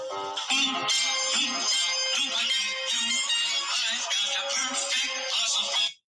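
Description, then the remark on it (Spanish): A bright, tuneful melody, the song a phone plays when a text message arrives, plays continuously for about six seconds with dense layered tones and a steady level before stopping abruptly. No one speaks. “Cuando alguien me manda un mensaje a mi teléfono, lo que se escucha es esa canción que escucharon.”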